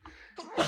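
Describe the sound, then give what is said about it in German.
A single sneeze, a brief breathy intake building into a sharp, bright burst at the end, moderately loud, with no other sounds around it. “Gesundheit.”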